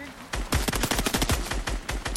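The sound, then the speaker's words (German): Rapid bursts of automatic gunfire from a video game, a dense, steady string of sharp shots lasting about two seconds, loud with no talking. “Digga, ich treffe keinen Schuss, cracked.”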